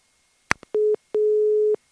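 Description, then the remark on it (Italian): A sharp click, then a steady mid-pitched telephone tone in two bursts, one short and one longer, clear with no voices: a line-busy signal after a failed attempt to take a listener's phone call live on the radio. “Eh, abbiamo provato una metodologia diversa per prendere la telefonata, ma evidentemente non sono riuscito.”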